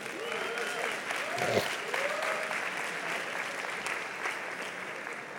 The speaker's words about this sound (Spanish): Vamos a darle un aplauso para animarlo.